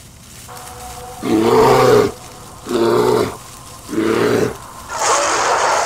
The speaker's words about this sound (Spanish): Fue ahí cuando lo vio. Un enorme oso pardo de casi tres metros estaba enfrente de él y parecía listo para atacarlo.